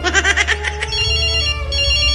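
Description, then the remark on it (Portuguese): A mobile phone rings with a bright electronic ringtone, a quick pulsing burst of tones followed by sustained melodic notes, loud and alone with no talking. “Tá ligando pra mim, só pode estar tá sabendo.”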